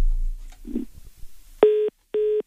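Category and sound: signal or alarm, telephone line tones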